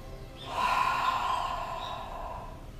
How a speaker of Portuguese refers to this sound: Inspire pelo nariz e expire pela boca, emitindo um som.